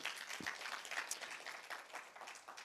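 A large church audience bursts into sustained applause for the Lord, many hands clapping in a dense, continuous wash without pause for a few seconds, with no one speaking over it.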